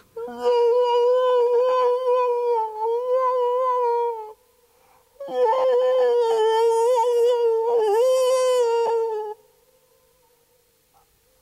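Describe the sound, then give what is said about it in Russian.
A person crouching with palms cupped at the mouth imitates a wolf howl in two long, sustained wavering tones, loud, separated by a short pause, with no talking over them. “Нет, но вы действительно воете, как настоящий волк.”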